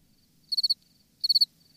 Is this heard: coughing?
no